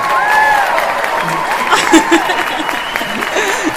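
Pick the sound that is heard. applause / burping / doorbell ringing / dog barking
applause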